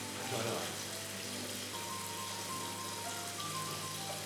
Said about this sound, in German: Hört ihr das Rauschen? Das sind Aquarien im Hintergrund.